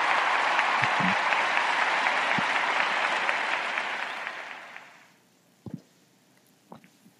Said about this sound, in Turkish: Alkışlarla uğurluyorum seni.